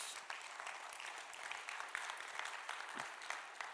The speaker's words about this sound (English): Come on and clap your hands to Jesus.